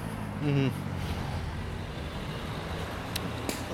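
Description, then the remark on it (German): Steady low rumble of road traffic, with engine noise from cars passing very close to the speaker, a brief tonal hum near the start and a couple of sharp clicks toward the end. “Autos viel zu nah an mir vorbeigefahren.”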